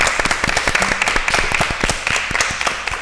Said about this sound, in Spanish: Pues me, me, he emocionado, por favor, un aplauso a los que estamos aquí.